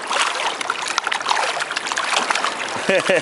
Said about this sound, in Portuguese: Esses barulhinhos, esses barulhinhos na água é de peixinhos, ó. É o rabinho lá. dele é assim, vamos ó. Lá, ó. Eu estou parada na água, vou colocar comida. olha os barulhinhos deles.